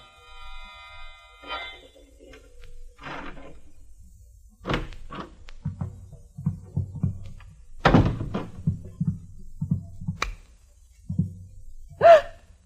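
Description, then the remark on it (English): A key rattles and turns in a door lock at about midnight: sharp clicks and scrapes with a series of dull thunks between them, then a final sharp burst, with no talking. “my dreams of a vine covered cottage in the country with Mallard were rudely shattered by a sound the sound of a key in the lock of the door”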